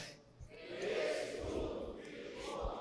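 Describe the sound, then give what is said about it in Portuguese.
A crowd of people wearing masks shouts the phrase "Crês tu no filho do homem?" together, a dense, sustained unison roar that swells for a few seconds before easing slightly. “dá, dá um grito aí para sair da máscara, vamos lá.”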